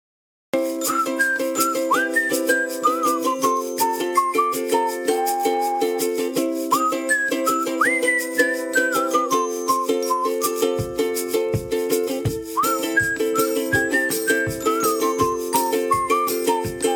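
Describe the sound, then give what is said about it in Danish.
The jingle of the show Morgenmokka med Mads: a bright whistled melody glides over a steady, sustained musical backing, joined midway by a regular thumping beat; loud and continuous with no talking. “Hvis nu vi lige tager en jingle, så kan jeg lige tage mig en mundfuld mad, og så, så er vi allerede lidt længere.”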